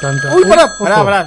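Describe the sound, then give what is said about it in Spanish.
An old landline neighbourhood telephone bell rings steadily beneath an excited voice talking over it, the speech louder and the ringing a continuous metallic tone behind it. “El teléfono. ¿Cuánto el teléfono tiempo Boedo suena así, teléfono de barrio.”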